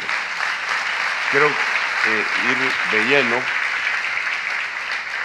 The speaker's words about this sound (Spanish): Denle un aplauso al Rey bendito.